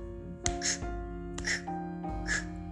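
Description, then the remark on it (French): A voice imitates an axe chopping wood with three sharp, breathy vocal bursts at an even pace, each one a short, forceful "chop" sound, moderately loud over a faint background hum. “c'était le son d'une hache qui coupait du bois.”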